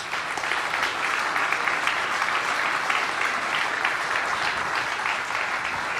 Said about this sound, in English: let's just give a round of applause and thanks for those who put this together and put all the work into this.